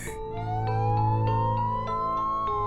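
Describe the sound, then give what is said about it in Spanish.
An ambulance carrying away a body: its siren wails steadily and loudly, the tone rising slowly in pitch over a couple of seconds, with a faint rhythmic pulsing underneath and no voices. “Una ambulancia se llevó el cuerpo de Mateo y lo regresó al día siguiente para que lo velaran en el cuartito de las consultas, bajo la lechuza y la foto de su madre.”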